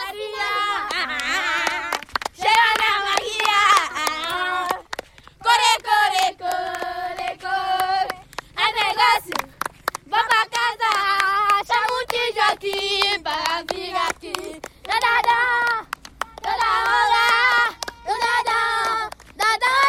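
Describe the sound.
A group of children in a main street, gathered around a small handheld recorder and asked to sing, sings together in high, bright voices, holding sustained notes in short phrases separated by brief pauses, loud and steady throughout.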